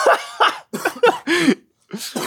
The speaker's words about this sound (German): Das Einzige, was ich hab, halt habe, ist Husten.